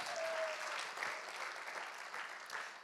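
A crowd claps steadily, a dense, even patter of many hands with no break, holding at a fairly constant level throughout.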